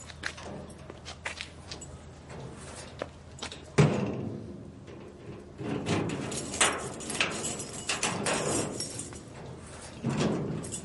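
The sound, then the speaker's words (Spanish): At night, a person steps back inside from looking outdoors and shuts the door with one solid thud, followed by soft shuffling movement and light knocks, with no talking. “Vuelve a entrar y cierra.”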